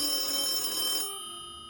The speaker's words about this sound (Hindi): घड़ी के कांटों ने जगह बदलकर नौ बजा दिए थे कि हॉल में रखा लैंडलाइन बजने लगा